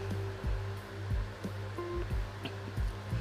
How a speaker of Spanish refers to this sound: No tengo otra cosa, o sea, no tengo un estudio montado. Se darán cuenta por que se escucha el ruido del ventilador, o se escuchan los ruidos de la calle, o se escuchan, por más que le ponga música arriba